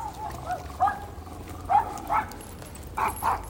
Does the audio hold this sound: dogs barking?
yes